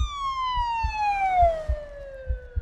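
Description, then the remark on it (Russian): A police car siren wails loudly on an evening road, its tone sliding steadily downward in one long sweep, while low rhythmic thumps of road traffic rumble underneath. No one speaks. “Они бросились вниз по лестнице, в машину, у них 10 минут. Сирены, вечерняя дорога.”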